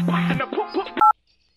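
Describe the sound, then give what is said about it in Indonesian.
A phone's electronic ringtone melody for an incoming call plays briefly and clearly, then cuts off with a click and a short two-tone beep, followed by silence. “Tuh, hijau telepon.”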